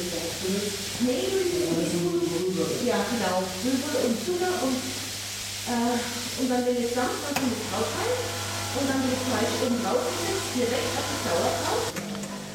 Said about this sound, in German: kämpft ein bisschen gegen das Geräusch von der Kaffeemaschine an.